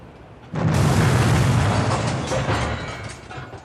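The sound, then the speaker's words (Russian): A sudden, loud, powerful directed explosion, a 'Molotov cocktail' set off to open a hidden door, bursts in after a brief quiet moment and raises dust. A heavy, rumbling roar follows, lingering and slowly fading over the next few seconds. No voices are heard. “Когда пыль, поднятая мощным направленным взрывом, немного осела,”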